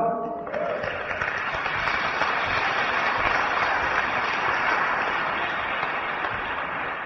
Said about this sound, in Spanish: ¿Nos mereceremos un aplauso?